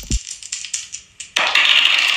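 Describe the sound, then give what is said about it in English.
Dice clatter and tumble on a hard surface in a quick run of sharp clicks, then a louder continuous rattle takes over to the end; no one speaks. “And speaking of KO, let's go and roll these dice and knock out these folks with the topic of the day.”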